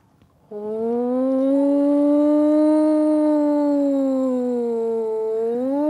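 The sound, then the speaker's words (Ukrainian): An air raid warning siren starts abruptly and holds a loud, steady wail that drifts slowly up and down in pitch for several seconds, with no voices present. It warns people to move to a safe place or shelter. “Це просто сирена, яка сповіщає, що потрібно перейти в безпечне місце або укриття.”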